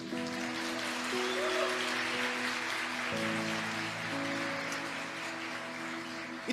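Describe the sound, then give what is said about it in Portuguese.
A church audience applauds Jesus with steady, dense clapping for several seconds while sustained keyboard chords hold underneath, changing once midway. “Você pode aplaudir a ele por isso?”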